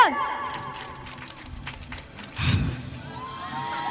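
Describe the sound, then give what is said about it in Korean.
An audience claps ten times on command from a performer on stage: a quick run of about ten sharp, fairly even beats over the murmur and bustle of a lively crowd. “박수 10번!”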